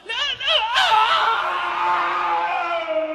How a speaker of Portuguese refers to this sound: Vinham abraçados como dois apaixonados quando ouviram um grito de horror ao longe, para os lados do Alentério.